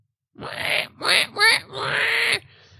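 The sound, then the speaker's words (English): A person imitates a boar's grunting with four nasal, throaty bursts, the last one drawn out, fairly loud, with no other talk. “you actually notice uh, while you're in the woods getting kind of close to the uh, loggers camp you see you hear it first you hear like”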